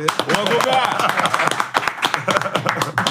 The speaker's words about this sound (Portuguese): Palmas pra ele.